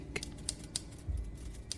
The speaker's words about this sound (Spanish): Lo que acechaba en su interior solo podía imaginarse como un terror difuso, un terror que se vio sumamente reducido cuando los exploradores escucharon claramente el sonido de la máquina de escribir de Richard Blake.